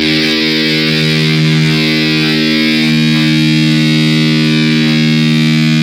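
A heavily distorted electric guitar played through a distortion pedal holds one loud, buzzing note that sustains steadily for several seconds without fading, thick with harsh upper overtones and no voices.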